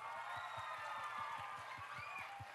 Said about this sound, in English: Can we give all the families a round of applause, please?